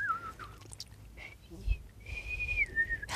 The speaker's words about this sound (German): Ja, vor allem, du machst gar nicht so eine, du pfeifst nochmal ganz anders. Das ist ja fortgeschrittenes Pfeifen.